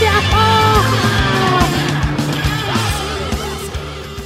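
A person yells loudly and at length, the strained voice wavering and gliding up and down in pitch for several seconds.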